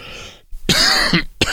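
A loud cough from a heavy cold caught in Germany, with a rough, throat-clearing quality, followed by a second short harsh burst, with no talking.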